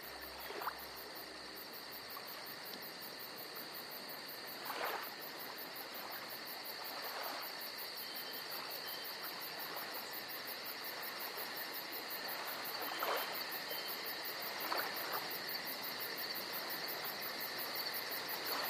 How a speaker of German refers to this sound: Und nur ganz leise im Hintergrund beginnen sanft die Grillen zu zirpen.